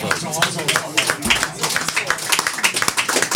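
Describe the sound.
Applause: quick, steady hand claps in a brisk, fairly even rhythm, moderately loud and continuing throughout, with a faint murmur of voices underneath.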